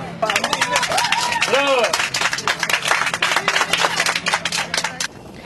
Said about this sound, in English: So there's a Turkish guy helping me out, and somebody that that what I'm doing is right. Some people are really applauding all this that I'm doing.